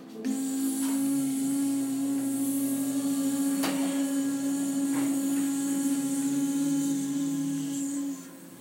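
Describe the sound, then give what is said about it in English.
Several people imitate a buzzing bee as they breathe out, with one steady, mid-pitched hum held for about eight seconds at an even loudness, then stopping together. “And let's be a bee and go.”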